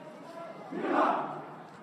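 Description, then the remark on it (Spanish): A crowd shouts vivas inside the float of the Señor del Consuelo en el Desprecio de Herodes at its departure from the Basílica de la Merced during Holy Week in Jerez, a loud collective cheer swelling to a peak mid-clip and then fading, with a broad, reverberant wash of many voices. “Los vivas en el interior del pase de misterio.”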